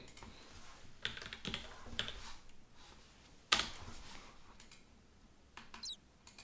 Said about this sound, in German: Perfekt, das war mein Schlüssel. Der leg ich weg.